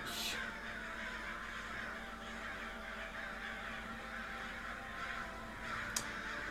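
Crows caw repeatedly with harsh, raspy calls over a steady outdoor hiss, the cries overlapping, with a sharper burst near the start and another near the end.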